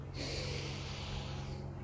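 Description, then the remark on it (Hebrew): A long, deep breath drawn in through the nose, a steady airy rush lasting nearly two seconds, with no talking. “בואו ניתן נשימה אם אתם מוכנים.”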